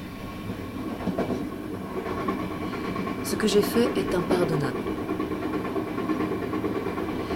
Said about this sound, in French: Je suis allée à la gare et acheté un billet, je suis montée dans le train pour Paris et changé de numéro de téléphone.